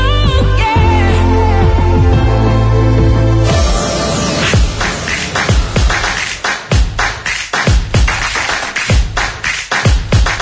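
A sustained droning tone holds for a few seconds, then gives way to loud, forceful drumming: rapid, driving hits in an aggressive, martial rhythm, with no voices, opening the Territori Dona segment on Ràdio Televisió Cardeu.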